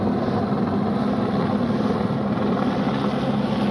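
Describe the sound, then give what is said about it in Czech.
Loud, steady helicopter rotor noise, a constant deep mechanical drone with a dense rumbling texture that holds at the same level throughout, with no voices; a rescue helicopter in Nepal evacuating an ailing Sherpa from an expedition. “Že má problém, který nejsme schopni vyřešit a těžko bude transplantovatelný jinak než vrtulníkem.”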